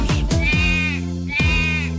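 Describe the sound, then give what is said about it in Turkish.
A voice imitates a lamb's bleating in a Turkish children's song about a farm, making two quavering, wavering 'meh' calls in quick succession, loud, with a sung, musical quality. “Çiftliğinde kuzuları var”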